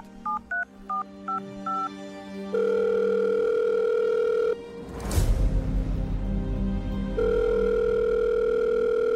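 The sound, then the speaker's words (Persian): A quick run of five touch-tone beeps as a telephone number is dialed again, then a steady electronic ringing tone on the line, broken by a brief whooshing rush of noise before the ringing tone returns. “این دفعه بیشتر طول کشید تا کسی که پشت خط تلفن بود تلفن رو برداره دوباره یکی اون ور خط تلفن رو برداشت اما حرفی نزد”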